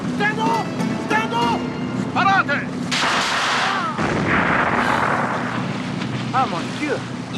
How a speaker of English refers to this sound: oh, he's got dynamite! Oh, oh, he's just been shot by the policeman.